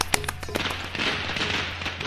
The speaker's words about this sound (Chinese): 啊，鼓掌鼓掌，终于读完了